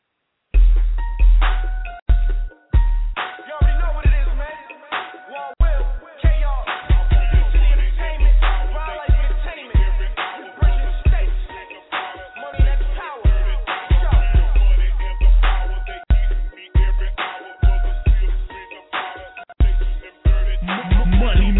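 A hip-hop track plays back loudly with heavy, booming bass and a steady punchy beat. It sounds somewhat muffled and band-limited, like music heard through a phone line, running continuously throughout.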